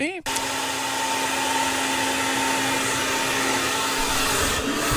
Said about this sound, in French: C'est quoi? C'est un séchoir à cheveux, en fait.